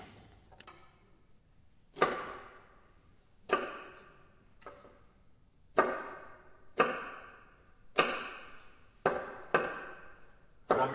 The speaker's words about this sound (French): On écoute un extrait des Mystères du château du D pour le film homonyme de Manray, toujours de Nicolas de Sortis